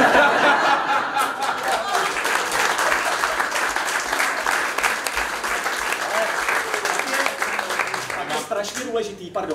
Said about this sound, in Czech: Chtěl jsem říct, že jenom, že vám tleskáme, pokračujte si